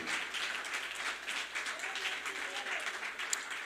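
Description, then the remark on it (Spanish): An audience applauds for Christ in the afternoon in a steady, dense wash of clapping that holds at an even level for a few seconds, with a faint voice or two rising beneath the noise. “Si alguien lo cree, dele un aplauso fuerte a Cristo, aleluya, en esta tarde.”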